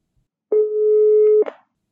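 A single steady telephone ringback tone, clear and fairly loud, sounds for about a second, then cuts off with a brief click as if the call is picked up. No voices.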